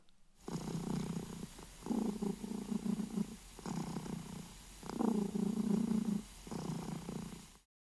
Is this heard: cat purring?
yes